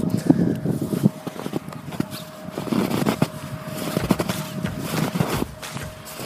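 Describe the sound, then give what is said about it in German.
Footsteps crunching through roughly metre-deep snow, a steady series of gritty, irregular crunches at a walking pace, moderately loud, with a faint constant hum in the background and no talking. “Also hier ist richtig bestimmt metertiefer Schnee, wahnsinnig toll und ich muss jetzt für euch mal dieses Geräusch vom Knirschen aufnehmen.”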